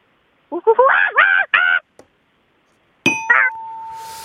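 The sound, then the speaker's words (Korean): In a sound-imitation contest, a 30-year-old woman imitates a monkey with four quick, wavering hoots in a row, fairly loud. After a pause comes a sharp bell-like ding with a lingering tone, marking the attempt as a failure. “서른 살 여성분이 하는 원숭이 들어보겠습니다.”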